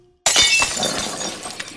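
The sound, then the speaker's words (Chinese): After a brief silence, a vase knocked over by a duckling running around a farmer's house crashes down and shatters with a sudden loud burst, followed by a second or so of bright, crackling, tinkling shards scattering and settling. “爸爸，鸭子把花瓶撞倒了，还把牛奶打翻喽！”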